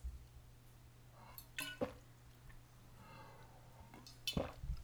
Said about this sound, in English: Wow, I just took two whole gulps of egg juice.